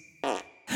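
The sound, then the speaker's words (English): Two short, loud, raspy fart blasts from a person who ate a twister toadstool, the first about a fifth of a second long, then a brief pause before a second burst starts up. “He'll be fine once he sleeps it off, gives you crazy dreams and explosive flatulence.”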